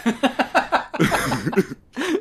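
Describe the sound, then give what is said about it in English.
A fairly loud bout of throat clearing: a quick run of short, rhythmic hacks, then a longer rough cough and one final harsh burst after a brief pause, with no talking. “So I'm going to talk a little bit about that after I clear my throat.”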